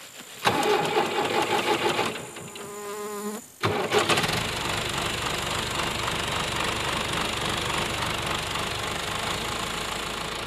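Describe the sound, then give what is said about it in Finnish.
A tractor engine cranks with a brief whining starter, then catches and settles into a steady, loud diesel rumble that runs on evenly to the end, with no voices. “Traktori. Tai leikkuu puimuri.”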